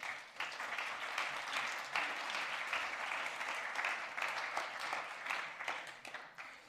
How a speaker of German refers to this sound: Schön, dass ihr da seid, dass es euch gibt und ihr den Dienst tut. Ein Applaus für euch.